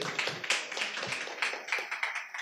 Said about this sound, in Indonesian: Terima kasih Bapak Heru tepuk tangan untuk Bapak Heru.